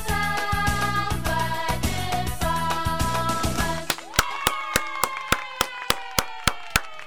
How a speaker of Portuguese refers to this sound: Feliz aniversário, uma salva de palmas agora, ó, ó, ó.